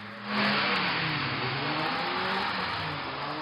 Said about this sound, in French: Sur ces images amateurs, des rodéos incessants des dizaines de voitures lancées à pleine vitesse enchaînent les dérapages.